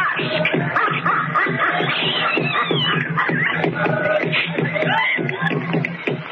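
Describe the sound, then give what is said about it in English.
A group of voices chants steadily over booming tribal drums that strike in a regular, driving rhythm, the whole mix loud and continuous without a pause. The drums have been booming for an hour. “Hear that chanting on them savage drums?”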